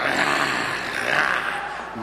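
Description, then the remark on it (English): A jaguar's rough, raspy growl rumbles steadily for about two seconds, fairly loud, with no words spoken. “One jaguar.”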